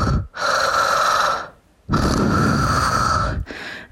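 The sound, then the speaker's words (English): A voice imitates a man's heavy mouth breathing in bed: loud, raspy, drawn-out breaths with a slight snoring rasp, two long ones separated by a short pause, then the start of a third. “Uh, my husband was lying behind me in bed doing mouth breathing.”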